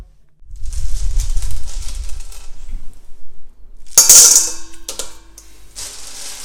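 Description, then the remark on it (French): Gold-colored berlingot hard candies from a chocolatier in Amiens, France, pour and rattle into a metal mixing bowl, a steady rumbling clatter followed by a sharp, loud spill that leaves the bowl ringing, then a few scattered clinks. No one speaks. “Alors ce bruit-là, c'est des berlingots qui vont dans un cul de poule, on va dire”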